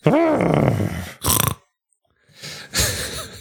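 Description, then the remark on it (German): A person makes rough, throaty grunting noises in imitation of a pig: a long rumbling snort, then two shorter guttural bursts after a brief pause, fairly loud. “Das ist mehr so ein Schwein.”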